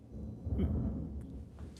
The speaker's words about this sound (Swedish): jag vet inte ifall ni hör det här. Ja, Det var ett jättelångt åskmuller utanför mitt Jag fönster. hörde det faktiskt.